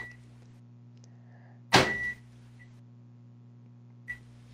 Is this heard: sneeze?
no